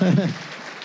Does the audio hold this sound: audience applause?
yes